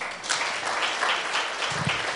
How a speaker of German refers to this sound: Danke euch. Applaus an eure Arbeit.